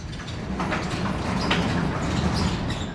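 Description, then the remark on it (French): A sliding door at an entrance is pushed aside and rolls along its rail with a steady low rumble and faint, thin squeaks over about three seconds, moderately loud, with no voices. “La porte vient d'être poussée sur le côté et vient de rouler sur son rail, découvrant à nouveau l'extérieur.”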